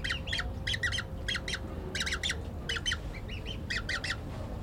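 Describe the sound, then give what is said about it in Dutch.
A young nestling bird hisses defensively at a person near its nest, in short, harsh bursts, mostly in quick pairs and triplets, repeating steadily over a low background rumble, with no talking. “Hij blaaste. Ja. Ja, als, hij je echt in de buurt komt, dan gaan ze inderdaad sissen.”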